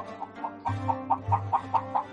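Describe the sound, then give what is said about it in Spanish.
A hen lets out a crowing cackle: a quick, steady run of about ten sharp clucks over a low, droning undertone, moderately loud, with no voices. “Comprendo vuestro dolor, buen hombre, pero que vuestro hijo esté vivo es tan probable como que cante esta gallina y la gallina se puso de pie y cantó.”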